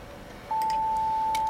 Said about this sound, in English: And then you've got the second harmonic just below it, and that sounds like this.